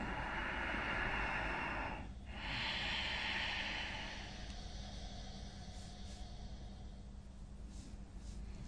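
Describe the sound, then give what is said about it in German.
Audible ujjayi breathing, practised as a yoga breathing exercise: a long, hissing throat-constricted breath, a brief pause, then a second steady breath that fades into quieter airy breathing. No one speaks. “Du kannst auch den sanft hörbaren Ujjayi-Atem üben, dieses Kehlgeräusch erzeugen.”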